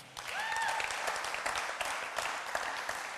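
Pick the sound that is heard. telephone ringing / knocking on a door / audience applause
audience applause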